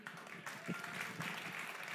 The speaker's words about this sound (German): Seht ihr, das macht einen Applaus, bitte schön.